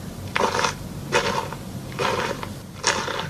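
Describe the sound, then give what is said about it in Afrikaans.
Four crunchy footsteps on gravel, evenly paced at a slow walking rhythm, each a short gritty crush of stones with a steady low rumble beneath and no talking. “Ik denk dink ik het ingetik voetsteps aan gravel of zoiets.”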